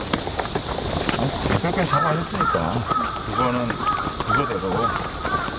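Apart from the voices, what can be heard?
crow cawing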